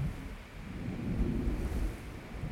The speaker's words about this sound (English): And then you can also hear this faint echo. And that faint echo is the glacier slowly melting.